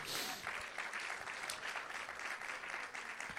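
An audience claps steadily, giving applause to the Lord, a dense, continuous wash of applause that stays at an even, fairly loud level throughout with no voices standing out.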